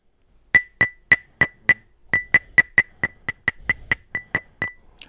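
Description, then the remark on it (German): A phone taps repeatedly against a ceramic coffee cup, giving about eighteen sharp, ringing clinks in a quick, slightly irregular rhythm, with a brief pause near the middle. No one speaks. “klopft mit einem Handy auf die Kaffeetasse, immerhin Kaffeetasse”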